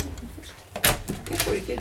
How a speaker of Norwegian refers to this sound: Jeg må låse døra